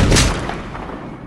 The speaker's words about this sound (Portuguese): Tiro fácil para sua experiência em acertar os membros das volantes a cavalo.